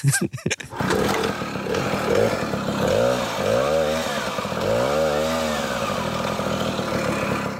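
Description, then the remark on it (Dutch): A small red Tomos two-stroke moped engine runs, buzzing loudly and shrilly, its pitch repeatedly rising and falling as the throttle is blipped, after a few sharp sputters at the start. “Het is het eh, geluid van mijn Tomosje.”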